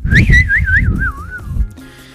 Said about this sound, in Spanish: Eh, y aquí es donde escuchamos pajaritos ahí volar.